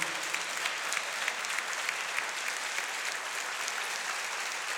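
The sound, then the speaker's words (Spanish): An audience claps together to praise the Lord in steady, sustained applause for several seconds, a dense wash of overlapping hand claps with no voices standing out. “Alguien debería decir amén a esto, ponerse de pie, aplaudir al Señor”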